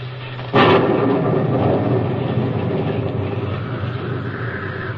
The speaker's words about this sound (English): I don't know how long it was, but then suddenly I felt the rain and realized a terrible noise in my ears was thunder and wind.